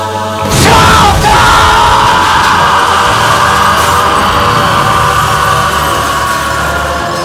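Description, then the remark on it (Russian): A man lets out a powerful, bestial roar in place of a word in a spoken message. It starts abruptly and holds loud and rough for several seconds, gravelly and strained, with no words spoken. “и в дальнейшем это слово я уже буду заменять на мощный звериный рев, через который, как вы, же воскресно, надеюсь, слышите, читается все, что заложено в моем изначальном послании, и вашей версии, дорогие мои.”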